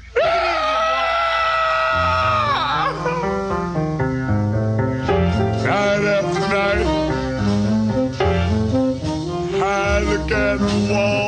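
A man lets out a long, loud, strained scream at the start of a record, then a full band with horns and a steady beat kicks in and plays on loudly.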